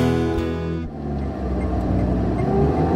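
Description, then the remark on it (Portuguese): A car engine hums steadily as the car drives home one morning, with a low droning rumble and a brief dip in the first second before the motor settles into a continuous running sound. No one speaks. “Você pode esperar no carro e a gente pega alguma coisa para a viagem.”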